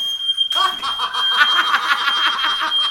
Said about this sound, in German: Also wir haben jetzt gerade einen Feueralarm. Übrigens, hier ist kein Feuer. Aber die Dinger sind laut.